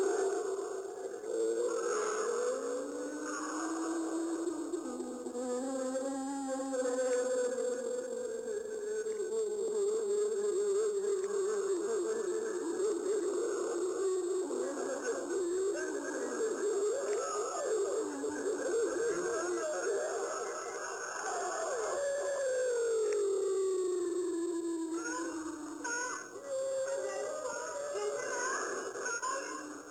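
An eerie, distorted wartime psychological-warfare recording used to scare the Viet Cong: wavering, sliding tones over a constant insect-like buzz and hiss, steady and fairly loud for the whole stretch, with faint murmured Vietnamese voice-like sounds woven through.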